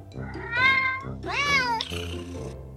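A cat meows twice in quick succession, each call a clear, drawn-out tone with a rising then falling pitch, fairly loud over a low steady background hum.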